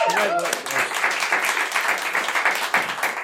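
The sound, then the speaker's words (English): A crowd applauds the band with dense, steady clapping that stays loud throughout, with a brief voice or cheer at the very start. “Round of applause for the band again.”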